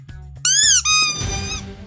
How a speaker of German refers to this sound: Ich starte mit dem Quietschen und dann geht's los.